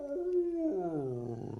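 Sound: wolf howling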